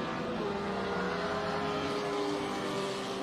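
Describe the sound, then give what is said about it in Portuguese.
A race car engine roars steadily, its dense, buzzing drone holding strong throughout with a slight upward push as it accelerates. No voices are heard. “Que à frente o Fábio Tokunaga, ó. Já vem acelerando.”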